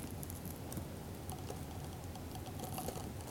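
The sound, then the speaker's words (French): A snail in a garden planter eating a lettuce leaf at Impasse Saint-Honoré, in the Blancarde quarter of Marseille, France, on 10 April 2020: a steady, dense crackle of tiny wet clicks and crunches, soft and continuous throughout, with no voices. “on entend un escargot dévorer une feuille de salade”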